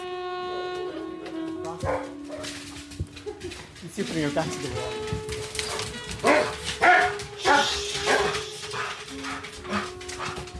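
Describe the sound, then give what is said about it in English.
Dogs bark and whimper during mating courtship, a male flirting with a female in season, with high whines and short yipping bursts coming in a loose, excited rhythm while a person talks over them. “he'll now start flirting with her and like he'll lick her ears and it's kind of like he'll nudge against her It's kind of it's I guess it's kind of canine foreplay for the want of a better description.”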